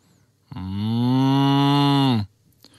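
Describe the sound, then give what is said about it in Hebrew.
A cow in the distance lets out a single long, steady moo lasting nearly two seconds, full and resonant, with no voices or other sounds around it. “איזו עוצמה של קול יש לזמיר, קרא בהתפעלות אחד היועצים כששמע פרה גואה מרחוק.”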